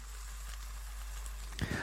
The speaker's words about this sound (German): Das brutzelt und blubbert hier schon schön.